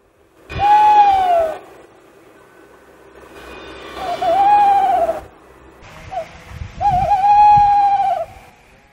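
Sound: tawny owl hooting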